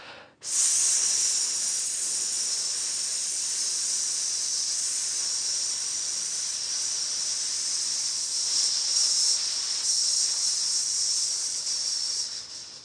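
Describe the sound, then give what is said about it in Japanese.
In a breathing exercise, a long, steady, sharp hiss of breath is pushed out through the gap between the upper and lower front teeth. It holds at an even strength for about twelve seconds, then tapers off as the breath is exhaled to the limit. No talking. “で、こう、前歯、上の歯と下の歯の間の隙間に息を通すような感じで息を吐きます。”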